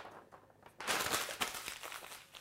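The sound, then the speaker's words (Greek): Paper rustles and crinkles: a quiet stretch, then a sustained burst of crumpling and shuffling sheets with a few sharper crackles, no voices. “Δεν θα τα πετάξω τα χαρτιά μου, θα τα κρατήσω για αύριο, γιατί σε κάποια θέλω να πω πέντε πράγματα.”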